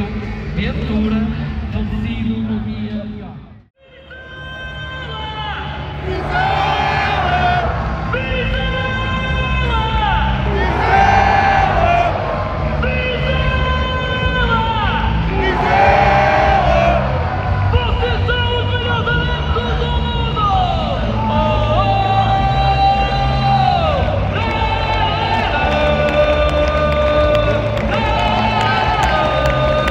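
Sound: football stadium crowd cheering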